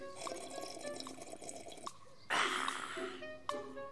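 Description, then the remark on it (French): Hot chocolate pours into a cup: a few light drips and clinks, then a steady splashing stream of liquid filling it, ending in a final drip. “Hmm, vite, un chocolat chaud pour bien commencer la journée.”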